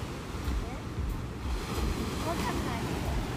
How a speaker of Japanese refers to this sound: ちょっと近くで喋ってこれね波の音で声聞こえちゃ聞こえなくなっちゃうはずだから